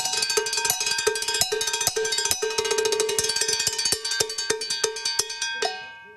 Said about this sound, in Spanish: Hermoso. El maestro Spiller tocando las campanas y bloques.